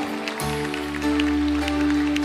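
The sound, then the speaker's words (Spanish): An audience breaks into steady, dense applause for the Lord, a continuous crackle of many hands clapping together while sustained low keyboard chords hold underneath throughout. “Dámele un aplauso al Señor de ahorros y préstamos.”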